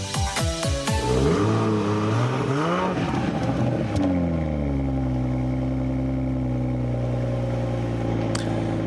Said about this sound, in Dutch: Het is een Zes in lijn motor, 340 pk. Het geluid van de Toyota GR Supra. Sinds kort eh, geleverd. Staat hier ook voor de deur op dit moment.